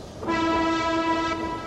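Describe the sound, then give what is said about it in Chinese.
A train pulling into a station sounds a single steady horn blast lasting over a second, a loud rich chord-like tone held evenly above a low rumbling background, with no voices. “火车进站了”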